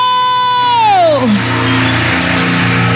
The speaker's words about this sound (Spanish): Aleluya. Alguien dale un aplauso al Señor. Un aplauso fuerte al que lo hizo.